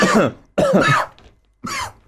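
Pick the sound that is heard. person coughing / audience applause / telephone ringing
person coughing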